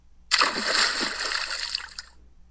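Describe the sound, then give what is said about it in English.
A single loud splash as Kamapuaa jumps into the ocean, followed by a second or so of churning, sloshing water before it fades out. No voices. “Realizing that he had lost the battle, Kamapuaa jumped into the ocean and changed into a fish.”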